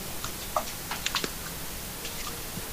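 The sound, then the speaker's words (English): Dishes being washed: scattered light clinks and clatters of crockery, a few small ringing taps, over a steady low hiss of running water, with no one talking. “Just doing the dishes.”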